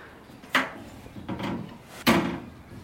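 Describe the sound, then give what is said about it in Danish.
A hinged metal flap clacks open, a soft scraping slide follows, then the flap snaps shut with a sharp knock as a letter is pushed through a mailbox slot, with no talking. “Nå, nu vil jeg gå ud og lægge brevet i hendes postkasse.”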